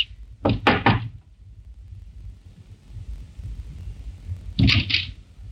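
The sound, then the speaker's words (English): A police inspector knocks on the door of a small flat in a residential district: three quick, solid raps, a few seconds of quiet with a low background rumble, then another short pair of knocks. No one speaks. “But instead, he knocked.”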